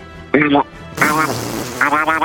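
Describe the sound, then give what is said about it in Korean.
A person imitates a duck with three raspy, nasal quacks, a short one first, then a longer buzzing call, and a final quack, each loud against faint background noise. “오리 소리 한번 해보겠습니다.”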